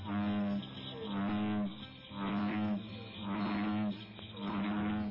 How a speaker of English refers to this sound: Golly, what a frog. A pair of legs that could feed a family of five.